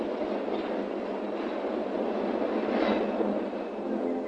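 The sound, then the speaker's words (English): A PATH commuter train rolls steadily along the rails, a continuous rumble and rattle that holds an even loudness throughout, with no voices. “Throughout construction, the PATH trains carried 130,000 commuters daily.”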